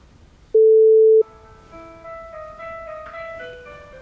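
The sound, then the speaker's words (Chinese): A telephone ringback while a call to the fifth phone number dialed connects, after four numbers could not be reached: one loud, steady mid-pitched tone lasting under a second, followed by a soft, simple electronic melody of sustained notes. No one speaks. “这四四个都打不通，这是打第五个幺三八四十七四。”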